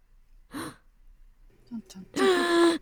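A sharp, breathy intake of air from a single voice, followed moments later by a louder, drawn-out voiced exclamation. It sounds dramatic, with no speech around it.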